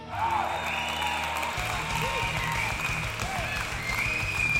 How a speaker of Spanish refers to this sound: Para ellos nuestras sinceras felicitaciones. Todo el éxito del mundo para ustedes muchachos. Aplauso.